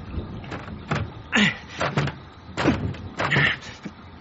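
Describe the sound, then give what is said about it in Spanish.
A police officer tries the handle of a locked bathroom door, rattling and clicking it several times in quick, uneven bursts, with the latch refusing to give. “Está cerrada.”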